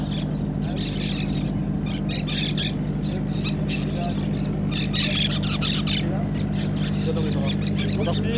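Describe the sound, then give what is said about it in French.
Birds call and squawk in short, repeated bursts over a steady low hum, with harsh bright cries rising and falling throughout at a fairly loud level. “and birds”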